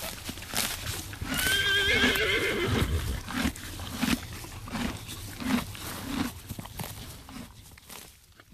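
A horse gives a loud, wavering whinny early on while its hooves clip-clop in a steady, unhurried rhythm, the hoofbeats continuing on their own afterward.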